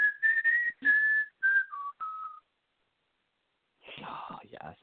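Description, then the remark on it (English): Someone whistles a brief tune, a handful of clear sustained notes stepping down in pitch, followed by a pause and then a burst of breathy, whispery noise, as a player plays a card in a game. “uh I'm probably just gonna whistle every time I play that card.”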